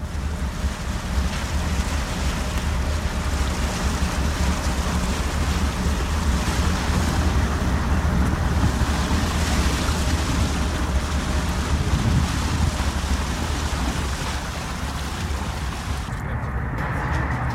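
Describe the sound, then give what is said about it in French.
A fishing boat's engine hums steadily in the port of Concarneau as octopus traps are unloaded, a low continuous drone with water and wind noise washing over it, dropping slightly near the end. No voices are heard. “On vous laisse écouter un petit peu le ronron du bateau, comme ça vous imaginez, vous êtes avec nous euh, dans le port de Concarneau.”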